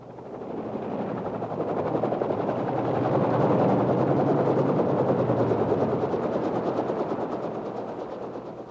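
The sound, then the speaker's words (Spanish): A helicopter's rapid rotor chop thumps steadily, swelling louder toward the middle and easing off again as it passes overhead, with no voices. “En eso estaba cuando llegó a la selva una gran expedición internacional con helicópteros y todo.”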